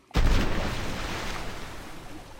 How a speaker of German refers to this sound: Sie verbinden sich mit einem lauten Knall. Äh, Moment, wir spielen den Knall kurz ein.